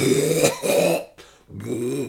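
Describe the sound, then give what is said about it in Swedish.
Someone does a comic imitation of another person's coughing: loud, voiced hacking bursts with a brief catch in between, then one more drawn-out cough, with no other talking. “jag snodde mycket av det, jag gillar mest var hans hostningar.”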